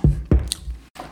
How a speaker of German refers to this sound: Nuschel ich so? Ich habe gerade den Mund voll. Ich esse gerade Pringles. Pringles.